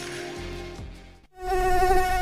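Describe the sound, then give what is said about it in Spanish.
A high-pitched mosquito whine drones steadily, briefly dipping and fading near the middle before returning louder and sustained. “Si hoy no querés escuchar este sonido, conecta tu Fuji a las 8 de la noche y mantén alejados a los mosquitos.”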